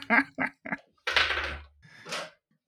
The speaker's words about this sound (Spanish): Espérate, voy a abrir la puerta.